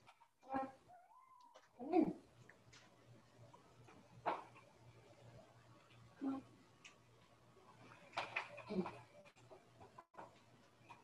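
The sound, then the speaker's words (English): A male pet cat meows in short, separate calls, roughly five across the stretch, with some shuffling noise in between and a low steady hum underneath. “And my cat is meowing.”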